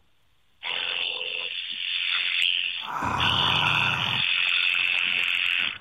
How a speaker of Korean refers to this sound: 네, 이발 기구로 아, 강아지 털 깎는 소리요. 오토 오토 커트기군요. 그러니까 한마디로 얘기해서. 네네. 그래 지금 강아지를 실제로 털 깎은 건 아니잖아요. 실제로 깎고 있어요.